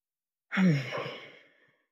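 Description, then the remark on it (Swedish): A single deep breath released in a long, audible sigh, starting with a soft voiced tone and fading into airy breath over about a second. “Jag börjar med att ta ett andetag.”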